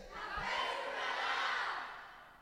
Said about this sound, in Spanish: La fe es un radar. A ver, ok, gritar fuerte aquí, solo los de aquí, es un radar. Gritar, la fe es un radar, gritar fuerte.